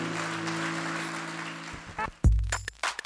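A church audience gives God a praise clap, breaking into sustained applause with a steady organ-like tone underneath, then the clapping cuts off and a few louder, brief sounds and chords follow.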